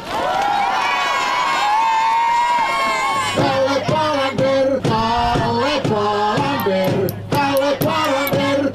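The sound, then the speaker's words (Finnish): A large crowd of fans in Austria cheers and roars loudly for Kalle Palander for a few seconds, then a rhythmic run of loud, tonal bursts follows over a sustained low hum, with the crowd noise continuing throughout. “Aletaan tässä vaiheessa aplodit Kallelle.”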